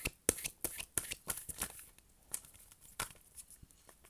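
Oracle cards being shuffled and rustled, a quick run of sharp papery flicks and snaps that fades into softer, sparser riffling toward the end. No one speaks.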